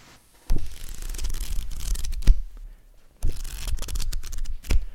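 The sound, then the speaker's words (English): Pages of a spiral-bound paper planner being handled, crisp rustling and flipping in two bursts with a short pause between, no voices. “yeah, that's paper.”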